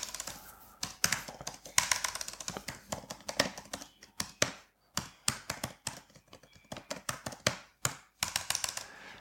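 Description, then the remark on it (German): Rapid, forceful keystrokes clatter on a computer keyboard, a dense run of sharp clicks with brief pauses, fairly loud, with no voices. “Boah, wie hart du in die Tasten reinhaust.”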